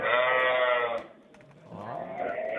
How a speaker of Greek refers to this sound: Για πε, τι ακούμε τώρα από πίσω. Πρόβατα, πρόβατα